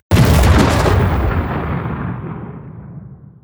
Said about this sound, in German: Ich wollte gleich diesen Soundeffekt einbauen. Deswegen haben wir eine kleine Pause gelassen. Aber klar, du kriegst die Explosion von mir.